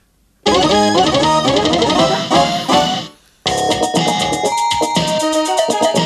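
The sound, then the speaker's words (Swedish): A Casio Tonebank CT670 keyboard demo track plays loudly with bright, busy synth melodies and rhythmic chords, pausing briefly after about three seconds before a new section starts with sustained tones. “Här är Casio Tonebank CT670 demospår.”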